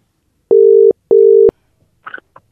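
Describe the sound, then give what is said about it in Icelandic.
A telephone call to Höfn in Hornafjörður: two steady, mid-pitched ringing beeps of equal length separated by a short pause, followed by a few faint clicks and rustles as the line connects. No talking. “við ætlum að núna þessu næsta ringja á höfn í Hortnafyrði”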